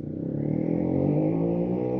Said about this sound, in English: Something just went down the road. yeah, I did. But um, that. Sound like a lawnmower. That's a dirt bike or a four wheeler or something. One or the other.